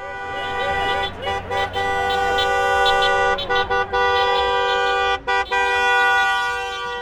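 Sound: car horns honking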